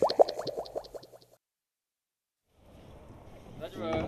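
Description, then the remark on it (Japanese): A voice speaks briefly, then after a pause comes a steady wash of water and wind noise from people out riding in a rowboat, with another voice rising over it at the end. “そもそもぶらり歩いてもいないしねそうだねボート乗っちゃってるからね大丈夫ですかこれ”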